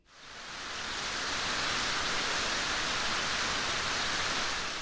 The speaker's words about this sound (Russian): Однажды начался дождь, и дождь шел как никогда раньше – Дождь шел и шел и шел несколько дней, и мир затопило водой.